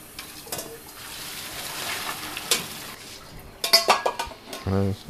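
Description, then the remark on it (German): Spaghetti being tossed and mixed with sauce in a pan, with wet, sloppy sauce sounds, metal utensils clinking and scraping against the pan, and a short voiced sound near the end. “Jetzt sind die Spaghetti in der Pfanne und werden vermischt mit der herrlichen Soße.”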